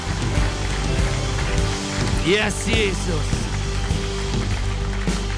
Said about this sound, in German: Und lasst uns sehen, zehn Menschen, die hier die Hand gehoben haben, einen riesen Applaus geben. Come on, Church!